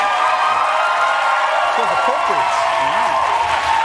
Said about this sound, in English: That's what we're gonna. It's just gonna be it's, half an hour of applause for you. That's that's overwhelming. You that's know? an overwhelming that's, response.